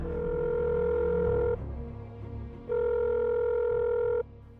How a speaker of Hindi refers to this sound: सदमे से सकपकाए हुए उन्होंने उसी वक्त राजन को फोन घुमा दिया